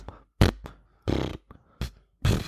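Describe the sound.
A man imitates wet fart noises with his mouth: four sputtering, buzzy bursts separated by short pauses and a few quick spluttery pops, fairly loud.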